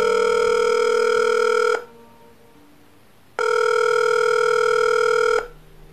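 Two long buzzing ringback tones from an outgoing phone call a mother makes to her son, each lasting about two seconds with a quiet pause between, steady and fairly loud with no voices.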